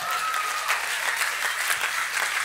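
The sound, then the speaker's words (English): A church crowd applauds the church worship band on a Friday night, many hands clapping at once in a dense, continuous wash of sharp claps that holds at an even, fairly loud level throughout. “How, how good is our church worship band? Give them a big old clap.”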